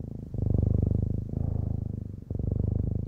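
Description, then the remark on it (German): A cat purrs, a steady low rumble with a fast pulsing flutter, rising and falling in three long breaths with brief dips between them. “Katzen können sich also selbst beruhigen und ihre Schmerzen fast wegzaubern durch ihr Schnurren.”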